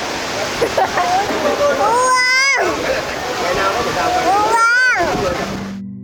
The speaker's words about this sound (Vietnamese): mưa trên biển mưa trên phố thương mình cái này thương mình cái này cái gì mưa ơi